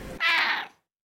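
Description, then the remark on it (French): A single drawn-out cat meow, loud, lasting about half a second before fading into silence, with no talking. “C'était le miaulement de mon chat.”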